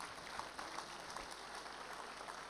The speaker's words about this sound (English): God bless you. Let's give the Lord a big clap for them.